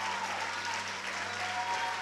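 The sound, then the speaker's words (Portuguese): An audience applauds steadily, a dense, continuous wash of many hands clapping at an even level, with a low steady hum running underneath and no voices standing out. “Aplaude, aplaude, aplaude, aplaude, aplaude.”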